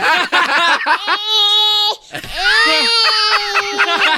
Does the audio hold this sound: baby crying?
yes